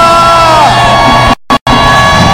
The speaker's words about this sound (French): Maintenant que vous avez entendu tout cela, est-ce qu'on peut pousser des cris de joie à Jésus-Christ de Nazareth Alléluia